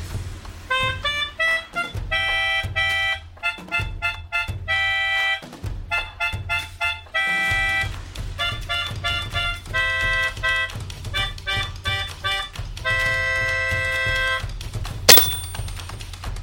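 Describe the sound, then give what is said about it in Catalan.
A Spanish guitar, a plucked string instrument, plays the song 'L'aranyeta xica' as a lilting tune, with bright plucked melody notes over a steady, rhythmic bass pattern. The instrument is heard alone, with no voices, and includes one sharp percussive tap near the end. “Cançó L'aranyeta xica. Instrument Guitarra espanyola. Família Corda polsada.”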